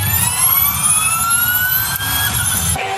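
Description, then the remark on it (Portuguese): A loud, high-pitched whine from a battery-powered Formula E electric race car climbs steadily in pitch as it accelerates past, layered over a low rumble, then cuts off abruptly near the end. “Sai o ronco dos motores que os fãs de automobilismo estão acostumados a ouvir e entra esse barulho, que lembra autorama ou videogame.”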